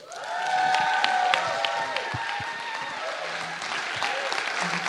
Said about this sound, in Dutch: Dus ik wil je vragen een heel hartelijk applaus te geven